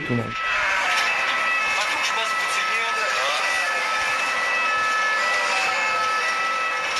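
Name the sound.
ambulance siren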